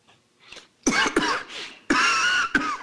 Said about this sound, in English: Sorry, I was coughing.